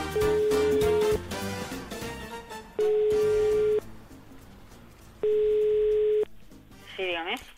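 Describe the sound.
A telephone ringback tone as a call is placed live: a steady, clear beep repeats three times at even intervals, each about a second long, with faint talk and background sound between the rings.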